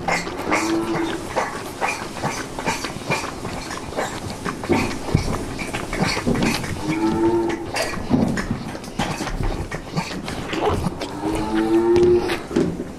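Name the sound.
calves mooing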